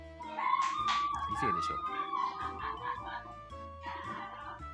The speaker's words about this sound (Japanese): 誰かシャウトした今隣からキャーって聞こえてくる カラオケだから楽しそう楽しんでる隣が楽しそうすごい女子が楽しそう